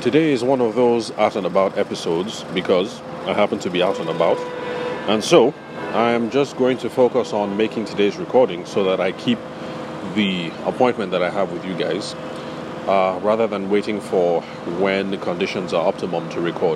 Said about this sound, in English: So, uh, apologies for the generator noise and the traffic and um, all of that.